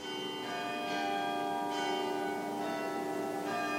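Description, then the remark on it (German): A carillon rings out from the town gate tower in Braunau, Austria, its bright bell tones layered into a sustained, shimmering chime with fresh strikes every second or so, steady and moderately loud, with no voices. “Das Glockenspiel im Stadttorturm etwa oder den sechsthöchsten Kirchturm Österreichs”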